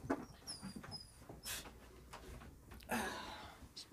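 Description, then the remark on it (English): A dog whimpers softly, giving a few thin, high-pitched whines early on, followed by breathy snuffling and rustling noises, all fairly quiet. “He's gonna cry.”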